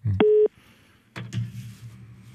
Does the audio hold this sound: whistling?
no